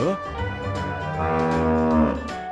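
A cow moos in one long, drawn-out call, loud, with a steady harmonic bellow that swells slightly toward the end. No other sounds accompany it.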